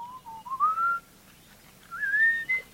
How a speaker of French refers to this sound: dans le nord de la Tanzanie, l'oiseau répond à un tout autre appel, un sifflement mélodieux l'appel que se transmettent à travers les générations les chasseurs de miel Razda. Écoutez la différence. Voici le sifflement des chasseurs Razda.